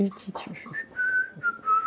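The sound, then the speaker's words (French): A person whistles a brief, clear melody of several sustained tones that rise and fall, with soft voiced hums mixed in at the start. “Alors, amuse-toi à, s'y siffloter, tu sais, les petites mélodies qu'on sifflote,”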